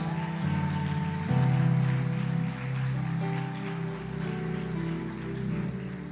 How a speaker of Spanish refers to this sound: Si usted lo cree, denle un fuerte ovación de palmas.